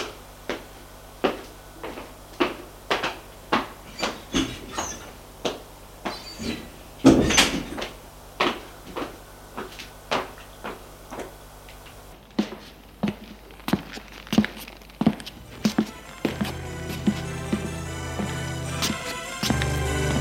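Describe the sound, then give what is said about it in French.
Steady footsteps tap along at an even pace as someone leaves a bedroom, broken midway by a louder door bang, then carry on before a low, steady hum rises behind them toward the end. “Et il sort de la chambre.”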